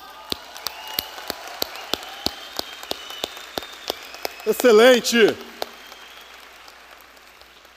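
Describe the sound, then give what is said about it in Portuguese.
An audience claps in steady unison, sharp even claps at a brisk, regular beat throughout, with a man's voice briefly calling out over the clapping partway through. “Palmas.”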